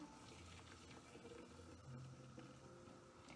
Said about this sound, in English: See, it's a lot quieter to pour when the coffee grounds are in the bottom. So you don't always hear those first, the first, you just hear a muffled sound of water because the grounds are muffling the sound.